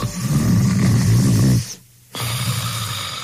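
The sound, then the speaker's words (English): A loud, rattling snore from a person sleeping soundly at night drones for over a second, then stops for a brief silent pause before a softer, raspy breath begins again. “This is the sound of one of our customers sleeping soundly at night.”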